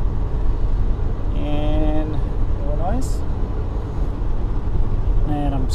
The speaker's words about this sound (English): Driving on the back highway, Highway 32.